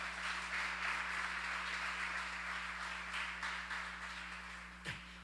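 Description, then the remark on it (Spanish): A crowd applauds steadily for several seconds as an offering of thanks to God, a dense wash of many hands clapping that slowly tapers off, with a low electrical hum underneath. “Si vas a darle un aplauso, dáselo fuerte a Él.”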